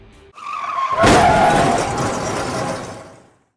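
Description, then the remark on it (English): A car rushes in and its tires screech in a long, loud skid lasting a couple of seconds before fading out, with no voices. “We like to get in a kid on car, an imaginary motor, pretend to be wrestlers and try to pop each other while we drive back for a show”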